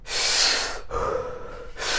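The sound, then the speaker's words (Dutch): A deep, forceful breath drawn in as part of a breathing exercise, followed by a shorter, breathy exhale, then the start of another sharp inhale. No one speaks. “Heel diep en heel in en dan kwart uit.”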